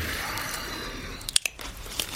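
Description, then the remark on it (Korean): Wet chewing of a mouthful of bread, soft mashing with a few sharper crunchy bites clustered near the end, quiet with no talking. “야, 빵이나 다 삼키고 말했마.”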